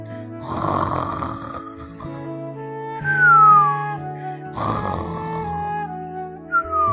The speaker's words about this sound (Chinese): 可是睡觉的河马只管睡它的觉，打它的呼噜。